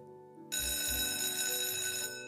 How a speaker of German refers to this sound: Das erlösende Läuten der Glocke durchbrach die Stille.